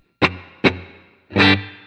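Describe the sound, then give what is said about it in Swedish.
Three dry electric guitar strums through an amp with its drive knob at 11 o'clock and bass and treble at 12 o'clock: two short stabs followed by a longer held chord, with a slightly distorted tone that stops abruptly without any lingering reverb tail. “Eh, och då låter det torrt så här igen då.”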